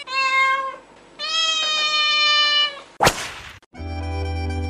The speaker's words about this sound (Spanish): Mira que el gato está llorando.